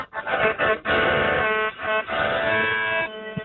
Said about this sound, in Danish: Ja, det er så sådan en, du sender rundt der, efter du lige har suttet på den. Ja, så spiller vi altid sammen med på melodikaen.